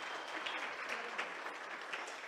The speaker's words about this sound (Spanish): nos va a compartir algo y yo quiero que lo reciban con un aplauso.